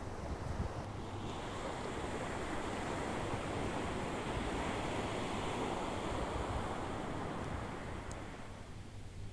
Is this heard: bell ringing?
no